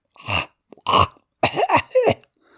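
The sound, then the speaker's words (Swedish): A voice imitates a lion choking and coughing on a snake lodged in its throat: five rough, gagging, retching bursts in quick succession, loud and harsh, with short pauses between them and no words. “Men hur han än hostade och vred sig och hulkade så låg ormen kvar där inne.”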